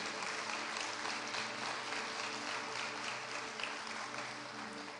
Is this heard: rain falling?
no